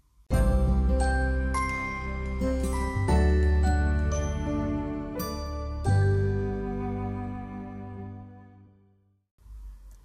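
A metal bell in a nearby temple rings loud and close in the morning, struck about ten times in an uneven rhythm. Its resonant tones overlap, then fade slowly into a long ringing decay before one last strike.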